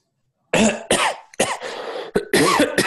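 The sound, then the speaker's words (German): A man coughs into his hand and into a microphone, a loud run of four or five harsh bursts in quick succession, with no talking. “Und dann hustet er in die Hand rein.”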